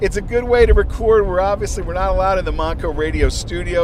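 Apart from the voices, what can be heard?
car interior road noise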